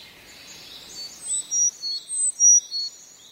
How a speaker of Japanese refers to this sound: でも高く伸びやかなヒーツキーが聞こえたらすぐにエゾムシクイだとわかります